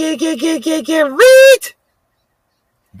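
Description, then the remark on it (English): A quick run of wavering, nasal blackbird squawks gives way to one loud, rising squeal, harsh, followed by sudden silence. “Can we get some more blackbirds screeching and squealing in the background, please?”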